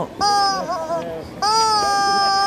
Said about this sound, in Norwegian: Neimen, er det en baby i stemmelokalet? Hvordan har du kommet inn, da?